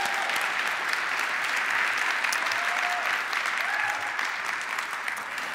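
Steady applause from an audience, a dense continuous patter of many hands clapping at an even level for several seconds, with no one speaking over it.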